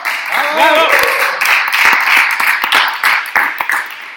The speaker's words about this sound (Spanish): En fin, nada, aquí estamos, programa número 100. Y deciros que ha sido un programa maravilloso, con una audiencia maravillosa, que si queréis podéis volver a aplaudir, por favor.